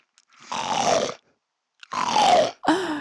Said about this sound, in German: Liebe Menschen, draußen an den Stammempfängern, es tut wahnsinnig gut, offen zu grunzen. Ach. Komm mal, wir machen jetzt einmal gemeinsam das Grunzen.